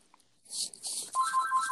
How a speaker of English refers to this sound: The phone, the phone is ringing.